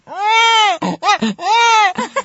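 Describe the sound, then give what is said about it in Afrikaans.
A voice imitates a crying baby as a sound effect: two long, wavering wails with rising-then-falling pitch, each followed by short choppy sobbing bursts, loud and without any other talk. “En dan het ek stories geskryf en goeters met sound effects en goeters in soos 'n ambulans of 'n babietjie.”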